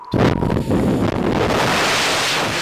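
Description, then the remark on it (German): Loud, rumbling wind in Vienna buffets the microphone nonstop, a thick low roar with gusty surges that fill the whole recording, and no voices come through. “Im windigen Wien.”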